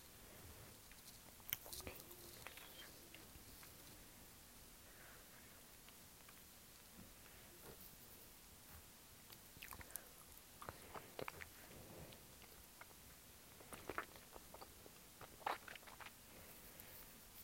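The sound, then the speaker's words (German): Quiet mouth sounds of someone chewing, biting and sucking on a soft gummy snake candy, with wet smacks and little clicks scattered irregularly over a faint background hiss. “Ich lutsche an einer gummi-schlange”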